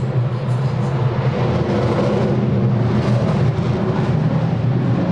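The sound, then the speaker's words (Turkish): A fighter jet performing an aerobatic display in the sky over Samsun roars continuously outside, a dense, loud rumble with heavy low end and a broad hiss that holds steady for several seconds without pause. “Evet arkadaşlar bu duyduğunuz ses dışarıdan gelen bu yoğun ses şu anda Solo Türk muhteşem bir gösteri sergiliyor Samsun semalarında.”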